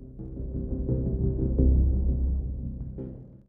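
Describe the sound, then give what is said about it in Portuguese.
An electric fan runs steadily, giving off a low, continuous hum with a faint throbbing quality. It stays at a fairly even level throughout, with no voices present. “Antes da gente começar o episódio de hoje, eu já queria avisar vocês que o ventilador está ligado e que provavelmente vai sair o barulho do ventilador no áudio.”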